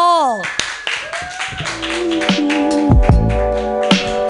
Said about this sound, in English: He's new, but uh, his life experience has given him the comedic background necessary to make you laugh constantly for the next four minutes uh, clap wildly for